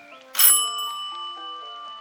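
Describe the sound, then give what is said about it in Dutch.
A doorbell rings once, a bright metallic strike whose shimmering tones hang and slowly fade over the next two seconds, with no voices around it. “Ik zal maar open doen, hè?”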